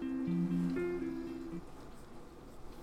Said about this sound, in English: So, as I sit here, and the dishwasher is going, by the way, so if you do hear a noise in the background, it is a dishwasher.